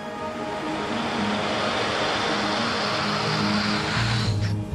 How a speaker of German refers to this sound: In der Fabrik wird diese Pampe erstmal aus dem Topf gelassen. Damit nichts drin bleibt, wird mit Wasser nachgespült.